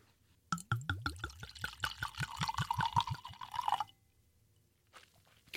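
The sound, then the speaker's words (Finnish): A wine bottle is opened and wine glugs out in a quick, steady run of gurgles rising in pitch as the glass fills, clear, then stops, leaving near silence and a couple of faint rustles. “Mä oon tässä muutaman kertaan varmasti sanonut, että rakastan niitä tarinoita, mitkä viineihin liittyy, niin tämän tarinan jälkeen ootan todellakin, että päästään nyt korkkaat toi.”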